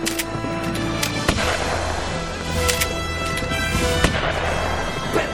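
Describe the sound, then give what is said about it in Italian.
Several sharp Winchester rifle shots crack out at uneven intervals over a steady rumbling, busy background, each one a brief loud bang with no voices. “Ci penso io con il mio Winchester!”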